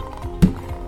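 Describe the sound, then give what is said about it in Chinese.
A single drum beat sounds once, a low, booming thud with a sharp attack that fades quickly over a faint, steady background hum; in a children's story it is the drumming of little elves in a parade band at their party. “就是小精灵们打鼓的声音。”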